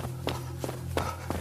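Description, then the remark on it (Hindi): Quick running footsteps of a person fleeing back toward the stairs, about five hurried thuds in a fairly steady rhythm, over a constant low hum with no voices. “जब मैंने उस कमरे का दरवाजा धीमे से खोला तो देखा कि वहां आठ दस बोने जो दिखने में बड़े भयानक से थे मैं उन्हें देखते ही वहां से वापस सीढ़ियों की तरफ भागने लगा”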